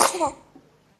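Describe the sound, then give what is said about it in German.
A single sharp sneeze bursts out, loud and brief, with a short voiced tail that fades quickly into near silence. No one speaks. “Gesundheit.”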